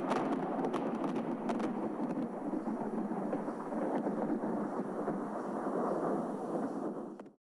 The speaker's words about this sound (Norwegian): Aha, det er det som er tordenværet. Aha, det er skyene som snakker til hverandre, som sier brum, brum, og det er tordenvær.